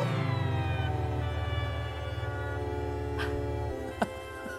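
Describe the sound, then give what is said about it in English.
A loud, growling synthesizer pad holds a rich buzzing tone with a pulsing low end, its brightness slowly sweeping as the filter moves, then fades into its release near the end. “So that's the sustain and then the release.”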